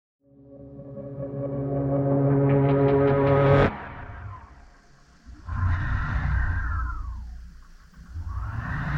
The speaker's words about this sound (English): This is the sound of a weather balloon swaying a few kilometers over the Nevada desert. The balloon looks like a giant white beach ball.